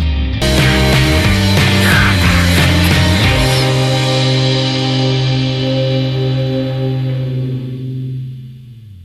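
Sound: song playing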